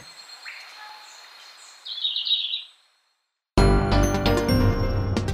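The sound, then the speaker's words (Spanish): A verderón castaño greenlet sings outdoors in a recording from the Banco de Sonidos de Aves Colombianas, compiled by the Instituto von Humboldt and Cornell University. It gives a few faint high chirps, then a brief, brighter rapid trill. After a short silence, loud music cuts in. “El trino del verderón castaño forma parte del Banco de Sonidos de Aves Colombianas, recopilado por el Instituto von Humboldt y la Universidad de Cornell.”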